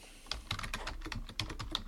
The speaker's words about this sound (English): That's you can hear me furiously furiously typing. typing away.